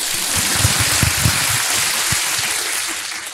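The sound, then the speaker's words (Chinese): A crowd applauds steadily, the many claps blending into a dense, even wash of noise that holds for a few seconds before thinning slightly at the end. “好，要鼓鼓掌哦。”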